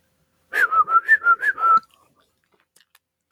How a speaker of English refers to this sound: It's, I mean, one would think you would learn how to whistle before you would pull that joke.